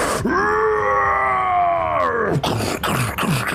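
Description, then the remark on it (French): A creature hit in the shoulders and thighs by crossbow bolts lets out a loud, sustained guttural cry lasting about two seconds, steady and harmonic with a rough, growling edge, dropping off sharply and followed by shorter ragged grunting bursts. “Les deux corps prennent dans les épaules, dans les cuisses des créatures qui semblent être ralenties l'espace d'un instant, lâchent un gros cri guttural.”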